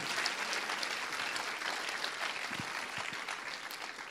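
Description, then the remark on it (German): A crowd applauds for Jesus as King, a steady, dense wash of many hands clapping at an even, moderate level throughout, with no voices standing out. “Ja, lass uns Jesus, dem König, da darf man ihm einen Applaus geben.”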